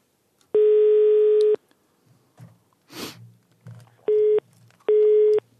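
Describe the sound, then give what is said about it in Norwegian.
A telephone busy signal as a call to Ole Inge Bekkelund is rejected: one long buzzy beep followed by two shorter ones, loud and steady in pitch, with faint breathing and a sniff in the gaps between tones. “Der ble vi avvist, ble ikke vi det?”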